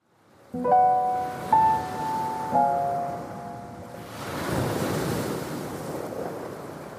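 Three sustained, ringing tones sound in succession, then a broad rushing wash of Pacific Ocean surf and wind, around a small island between Australia and South America, swells up and continues steadily, moderately loud, with no one speaking.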